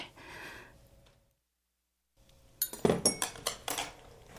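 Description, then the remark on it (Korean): Dishes and cutlery clink at a meal table set with two rice bowls, rolled omelette and seaweed soup: a quick run of about six sharp, bright knocks and chinks after a soft rustle and a pause of near silence. No one speaks. “오늘도 밥그릇이 두 개네.”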